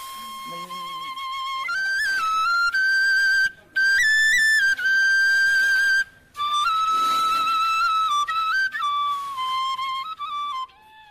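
A bamboo flute plays a clear, high melody of sustained notes that step and slide between pitches, with a few brief pauses, played alone with no talking.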